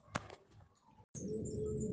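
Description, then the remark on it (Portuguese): A songbird sings in short, high chirping notes over a steady background hum, with a sharp click near the start and a brief silent gap before the singing continues. “Não há nada mais bonito que o canto de um passarinho, mas preso longe do ninho, seu canto é tão esquisito.”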